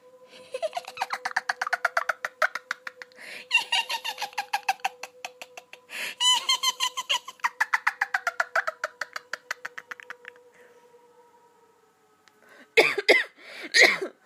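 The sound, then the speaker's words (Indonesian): A long stretch of rapid, rhythmic pulsing over a steady tone fades out, then after a brief pause a few loud, close, harsh coughs burst out at the very end. “Alah, langsung batuk anjing.”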